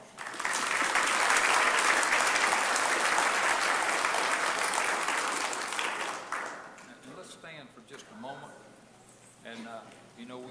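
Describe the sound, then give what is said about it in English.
An audience breaks into sustained, loud applause for about six seconds to celebrate a baptism, then the clapping thins and fades while people begin talking. “Some applause.”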